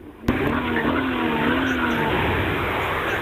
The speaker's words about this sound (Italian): Vabbè, mo metto in moto la macchina così senti il rumore. Ah. Ok, ora metto in moto.